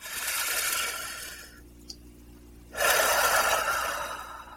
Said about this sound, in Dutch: pak een ademhaling diep in en doe dat drie keer achter elkaar.